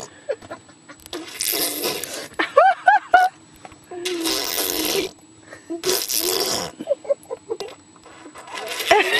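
A baby blows several buzzy, wet raspberries in bursts of about a second each, with short high squeals and babbling sounds in between.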